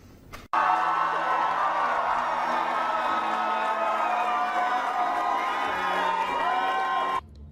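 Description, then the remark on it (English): A large crowd cheers and shouts loudly and continuously at Democratic candidate Jennifer McClellan's election night celebration in Virginia, just after 8 o'clock on Tuesday night as she and her team came out to the podium, with overlapping voices and whoops forming a dense, sustained roar for several seconds before cutting off abruptly. “That celebration is now over, but just after 8 o'clock, McClellan and her team came out to this podium to celebrate with what was a large crowd on what was a quick turnaround race since December's primary.”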